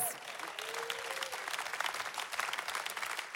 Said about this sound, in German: If you are a human being, clap for Jesus. Wenn du Mensch bist, dann klatsche jetzt für Jesus.